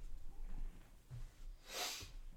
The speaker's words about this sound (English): No, no, he's blowing his nose.